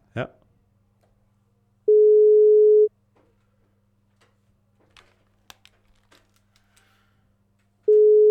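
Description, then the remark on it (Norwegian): A telephone ringing tone while calling from a different number: a steady, clear one-second beep, then a long pause with faint clicks and rustles before the next beep starts, heard through the line. “Ja, og det er derfor jeg ringer fra et annet nummer.”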